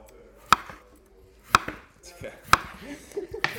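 Knife chopping potatoes on a board: sharp, crisp thwacks landing about once a second, four or five in all, with faint scraping and handling noise between the cuts.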